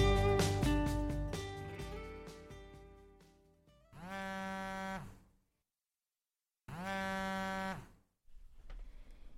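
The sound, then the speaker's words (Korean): A mobile phone vibrates for a long time in two long, steady buzzing pulses separated by a pause, left unanswered, following a fading burst of resonant musical chords. No one speaks. “핸드폰 진동이 오래도록 울렸지만 누군지 확인하지 않고 받지도 않는다.”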